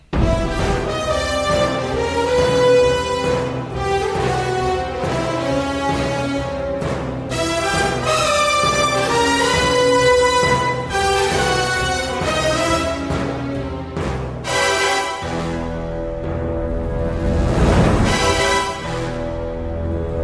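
Loud, full orchestral James Bond film score with sustained brass and strings, driving rhythm and swelling dynamics, building to a dramatic crescendo near the end; no voices.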